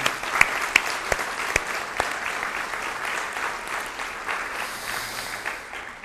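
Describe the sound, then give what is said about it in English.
A large crowd at Edgewood applauds steadily to express love for a departing military family on their last weekend there, a dense wash of many hands clapping, with a few sharper claps standing out near the start before the applause settles and carries on evenly. “And can we just express our love for them?”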